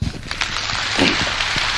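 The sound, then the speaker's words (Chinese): Dense, steady audience applause: many hands clapping at once in a continuous crackling wash that holds at an even, fairly loud level throughout, with no voices over it. “给你们自己有这个机会，掌声鼓励一下。”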